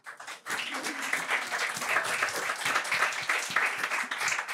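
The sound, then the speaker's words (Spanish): A crowd bursts into applause after a brief pause, many hands clapping in a dense, steady crackle that holds at an even loudness for several seconds, applauding chancellor Juan Carlos Dolguín for his work. “Hay que felicitarle de pie y con aplausos.”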